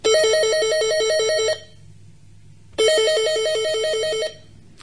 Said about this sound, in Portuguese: Certa tarde, Leda lê um romance na sala de estar quando o telefone chama.